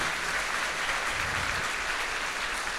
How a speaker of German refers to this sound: Herzlichen Applaus! Applaus!